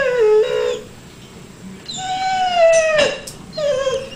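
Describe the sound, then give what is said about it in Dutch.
A dog whimpers in a series of high, drawn-out whines, three or four tonal cries with falling and wavering pitch, fairly loud, separated by short pauses. “Het is eerder wat piepen. Ja, dit is eigenlijk eerder wat piepen.”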